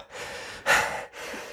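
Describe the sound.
A voice imitates a Polish man in a joke coming out breathless after a fight with a bear, with three heavy, airy panting breaths in quick succession, the middle one loudest, with no speech.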